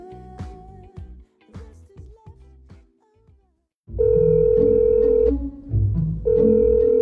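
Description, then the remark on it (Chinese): A quick run of short keypad beeps at varying pitches as a phone call from the idol Yan Yalun to a fan is dialed, then a loud, steady electronic ringing tone that drones, pauses briefly, and starts up again. No one speaks. “现在就让我们静静拨通电话。”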